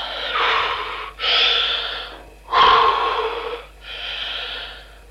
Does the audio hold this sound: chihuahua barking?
no